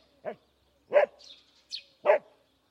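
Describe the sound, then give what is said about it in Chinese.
A dog guarding its home's yard barks three times in short, sharp bursts at unfamiliar motorbikes or footsteps passing by, with an uneven pause before the last one; faint high chirping sounds drift in between the barks. “如果有陌生的机车或是脚步声经过，嗯，我与生俱来的正义感就会冷不防的冒出来，促使着我奋不顾身的冲出去吼他个乱七八糟的。”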